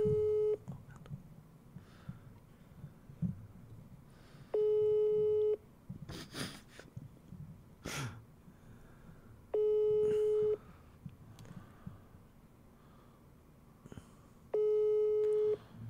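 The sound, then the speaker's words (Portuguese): A phone line rings on the caller's end: four steady one-second tones spaced about five seconds apart, nobody picking up, with faint room noise and rustling between the rings. “O cara não atende nem o é, telefone.”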